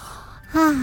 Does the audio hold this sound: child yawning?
yes